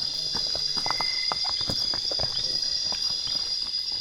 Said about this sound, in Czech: A tohle, to, co slyšíte, takový to trrr, Tohle, trr, to je taková velká zelená kobylka. Aha. To je jak zvonek jako opravdu na dveřích. Trr.